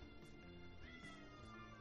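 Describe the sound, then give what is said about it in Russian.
A pet cat lets out a drawn-out, wavering meow that rises and falls in pitch, fairly faint and heard on its own with no talking. “Это кот, это мой кот, это не из, из фильма.”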